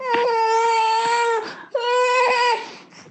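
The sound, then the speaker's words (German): A baby whimpers and grumbles in two drawn-out, whiny bursts while eating homemade porridge, the first longer, separated by a brief pause; fairly loud, with no other voices. “Mega gut, wie man hört. Er liebt den Brei.”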